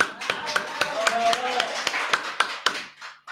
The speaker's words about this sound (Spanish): La vamos a escuchar, vamos a aplaudirla, ¿sí?